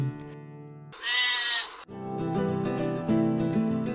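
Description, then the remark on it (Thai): A single loud, wavering sheep bleat lasting about a second, closing a told story about a black sheep, set between stretches of steady tonal music that plays before and after it. “และทั้งหมดนั่นก็คือเรื่องราวของเจ้าแกะค่ะ”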